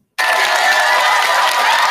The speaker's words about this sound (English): Come on, man. Come on, man. Round of fucking applause, man.